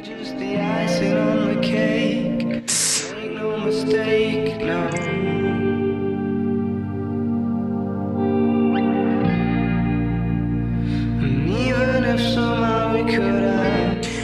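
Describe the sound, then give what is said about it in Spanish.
A slow, melancholic guitar piece drenched in echo and reverb, sustained chords ringing out and blurring together, with no voices over the music. “Tengo un par de canciones que usaría para ese entorno playero. es la guitarra tiene un tono”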